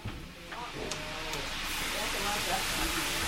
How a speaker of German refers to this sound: weil sie und ihre Angestellten mit der Zubereitung von Garnelen und Langusten beschäftigt sind, bevor die Krustentiere im Öl landen. Ein gutes Dutzend brutzelt schon.